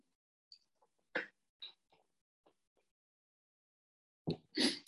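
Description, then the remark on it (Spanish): Someone takes a sip of water: a few soft gulps and small mouth clicks spaced apart in near silence, then a louder breathy exhale and throat sound at the end. “Y bueno, eh, voy a dar un poquito de agua, que estoy hablando aquí.”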